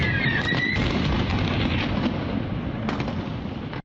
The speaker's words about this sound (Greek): Παράλληλα, στην περιοχή του Ενερχοντάρ, κοντά στο πυρηνικό εργοστάσιο τη Απορίζια, σημειώνονται εκρήξει κατά τη διάρκεια διαδήλωση των κατοίκων κατά του ρωσικού στρατού.